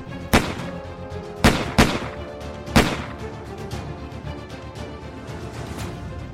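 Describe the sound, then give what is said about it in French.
Four sharp gunshots crack out at irregular intervals around 3 in the morning, two close together, each fading into a rumbling echo over a low steady background with no one speaking. “Vers 3 heures du matin, des coups de feu retentissent sans aucune densité.”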